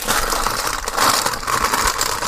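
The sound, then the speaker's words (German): A bag of Western Style chips crinkles and rustles loudly, a continuous crackling plastic sound for a couple of seconds with small surges as it's pulled open. “ihr werdet jetzt Tüte knacken können. Ich muss dieses Tzatziki essen. Als ob du jetzt diese Chips.”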